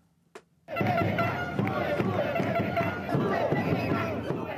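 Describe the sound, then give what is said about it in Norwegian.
A large crowd of supporters in Peru cheers and chants loudly and continuously for a presidential candidate after the presidential election, following a brief moment of quiet, with a dense wall of many overlapping voices, whistles and shouts. “Tilhengerne jubler for Pedro Pablo Koszynski, populært kalt PPK, etter presidentvalget sist søndag”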